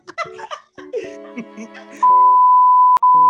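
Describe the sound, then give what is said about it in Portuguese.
Lively speech is cut off by a loud, steady high-pitched censorship bleep covering spoken names, lasting over a second, with a tiny break near its end as a voice resumes underneath. “Talvez os nomes sejam bipados, talvez sim.”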